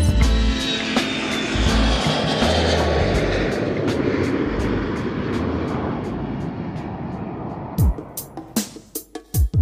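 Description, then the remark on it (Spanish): An airplane takes off with a loud, broad engine roar and deep rumble that slowly thins out, ending in a handful of sharp, irregular knocks; no one speaks. “Esto es Música para Volar. Despegamos.”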